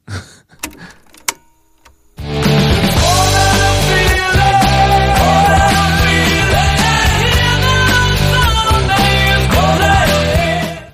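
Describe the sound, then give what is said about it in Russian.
After a couple of seconds of faint clicks and handling noise, the top pop song of 1976 starts abruptly and plays loud and steady: full instrumentation with a sustained, harmonically rich melody and regular rhythmic pulses, with no voices. “И главная песня, я не знаю, 76-го года.”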